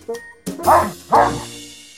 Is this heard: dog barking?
yes